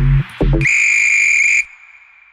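A loud, steady referee-style whistle blast lasting about a second, preceded by two short low thumps, then fading into quiet background.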